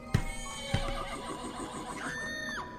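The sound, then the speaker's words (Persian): A carriage horse whinnies in a long, wavering high-pitched call after something strikes it, opening with two sharp thumps as the carriage jolts violently, the neigh rising and falling before trailing off. “ناگهان چیزی بر سر اسب قرار گرفت و کالسکه را به تکان شدیدی واداشت”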